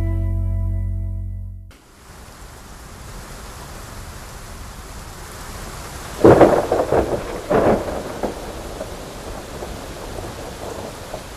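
Steady rain hisses throughout as a thunderstorm rumbles, with a couple of loud, crackling thunder bursts rolling in near the middle. No voices are heard.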